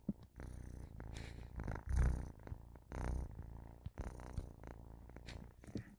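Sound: kitten purring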